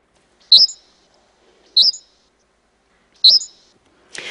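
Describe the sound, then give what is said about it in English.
A birdsong recording played at full speed, from a 1987 Hungarian recording: three short, bright bird chirps repeat at roughly even intervals, high-pitched and clear against silence, followed by a brief rustling burst at the end. “It was released as part of …'s 1987 Hungarian recording, …, where he records many birds and slows down their pitches to reveal what's underneath. Let's listen to the full speed recording.”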